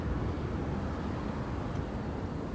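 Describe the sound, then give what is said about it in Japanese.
A steady, dense roar of heavy highway traffic on what is probably National Route 1, a continuous low rumble with no single vehicle standing out, fairly loud and unbroken throughout, with no voices. “結構ねあの国道1号線があの実は通ってましてん多分1号だと思うんですけれどもかなり交通量が激しいですねバスも来ましたね”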